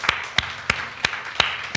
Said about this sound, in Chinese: 我们要给神一个最大的掌声，来的。